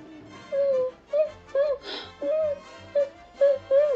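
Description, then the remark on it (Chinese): Someone crying sadly: a string of about eight short, mid-pitched wailing sobs in an uneven rhythm, broken by a sharp breathy gasp partway through. No words are spoken. “塑料袋听到了一阵哭声，是谁哭得这么伤心呢？”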